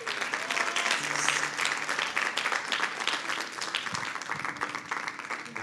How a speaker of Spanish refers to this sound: Un aplauso para nuestro Señor.